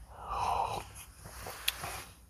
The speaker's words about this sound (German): ein bisschen Atmen im Hintergrund